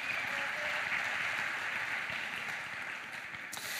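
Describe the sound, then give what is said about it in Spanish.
A crowd applauds steadily for freestyle motocross rider Tatán Mejía, a dense wash of many hands clapping at an even loudness throughout, with no voices standing out. “Un aplauso para él.”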